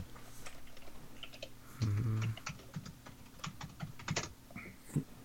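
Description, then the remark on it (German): Clatter of typing on a computer keyboard, with irregular bursts of quick keystrokes throughout and a brief low buzzing hum partway through. No one speaks. “Wenn, wenn man sieht, wenn man tippt, äh, äh steck Loser Key in Schlüsselloch, dann sagt er zurück, steckst du doch selber wohin.”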